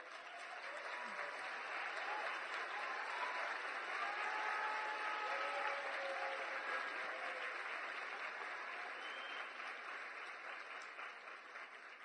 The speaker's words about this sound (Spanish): Así que les voy a pedir un súper aplauso para mi novia.